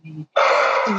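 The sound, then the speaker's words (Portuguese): A greyhound sneezes: a faint, low snuffling breath, a brief pause, then a loud, harsh, breathy burst that lasts about half a second. “Isso é, isso é um cão a espirrar.”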